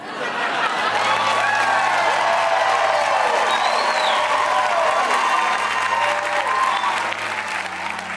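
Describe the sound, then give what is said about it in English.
Studio audience applause played from an applause button, steady and loud for about eight seconds, with scattered cheers and a few rising whistles over the dense clapping, easing off slightly at the very end. “I'm basically holding down this applause button the whole show.”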